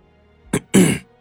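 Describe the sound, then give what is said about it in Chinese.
A person clears their throat in two parts: a short, sharp catch followed by a longer, raspy rumble, moderately loud against an otherwise quiet background. “他清了清嗓子，然后问道：”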